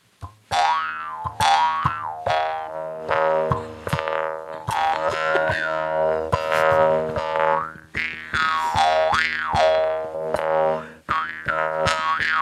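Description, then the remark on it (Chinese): A handmade Atayal mouth harp is played alone by a Golden Bell Award–winning actress, its buzzing, twangy drone struck in quick rhythmic plucks while the tone bends through shifting, vowel-like sweeps, loud and steady throughout. “我们先把口簧琴声音做完。”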